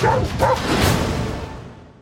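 A dog barks twice in quick succession, loud, with the second bark followed by a longer, rougher burst that trails off into fading noise. No one speaks.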